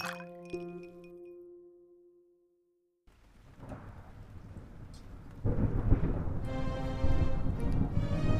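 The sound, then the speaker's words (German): After a ringing tonal chime fades into brief silence, steady rain hiss rises, then a loud, deep rolling rumble of thunder joins the downpour and continues to the end. “Dunkelheit, Gewitter.”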